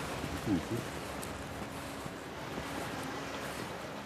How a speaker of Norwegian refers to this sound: Hvis vi, hvis vi, hvis vi virkelig lytter nå, så kan, vi, så kan vi høre havet der ute.